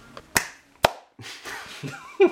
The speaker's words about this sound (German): Was für ein starker Klatscher zum Beginn. Ähm, ja, wir applaudieren uns immer selber. Wir selbst am Anfang und wir pushen uns ein bisschen auf.